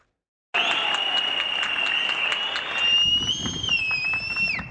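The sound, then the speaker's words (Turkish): Sustained applause from a large crowd for all health care workers, a dense steady wash of clapping that starts abruptly and continues throughout, with a high whistle-like tone running over it. “Tüm sağlık çalışanlarımızı alkışlıyoruz.”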